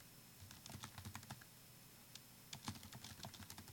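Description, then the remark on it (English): Rapid, uneven bursts of computer keyboard typing, crisp, with a brief pause in the middle before the clattering keystrokes resume, as someone takes care of a social media task. “you can hear me punching away on my keyboard.”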